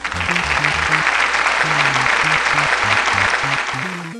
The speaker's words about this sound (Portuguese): Olha só, uma salva de palmas virtuais.